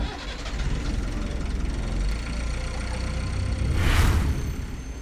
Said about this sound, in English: Our captain says it's going to be smooth sailing from Disney Hits HQ. Let's rev up those engines